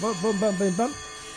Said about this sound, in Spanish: Este que suena aquí un reloj, un despertador. Me parece que, me estoy durmiendo, ¿no? Que está sonando el despertador.